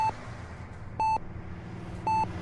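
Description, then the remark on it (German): A patient vital-signs monitor in an ambulance beeps with short, steady electronic tones, about one per second, clear above a low background hum. “Die Vitalzeichen sehen auf den Monitoren ganz gut aus. Es macht hier und da ein Piepsgeräusch.”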